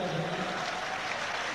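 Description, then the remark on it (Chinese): About three thousand people at a large gathering clap steadily for first-time attendees who raised their hands, a dense, even wash of many hands at constant loudness that carries through the whole moment without a break or any voices rising above it. “因为你举了个手，三千人给你掌声。”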